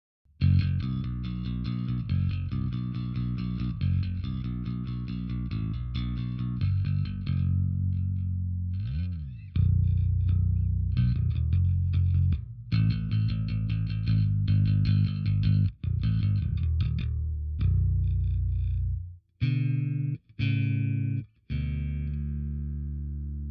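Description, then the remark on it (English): An electric bass guitar fitted with a Lucid Hand onboard preamp plays solo, with everything on full, filters up and the selector in the middle position: a full, bright tone, a steady run of notes with heavy low end, then a few choppy stops and restarts near the end. “Everything on full, filters up, uh, and just in the middle position.”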